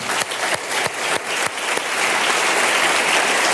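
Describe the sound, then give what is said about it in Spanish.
An audience breaks into applause, a dense, steady wash of clapping with a few sharper individual claps standing out at the start, building slightly and holding loud throughout. “Vamos a dar un aplauso a los hermanos que Sí,”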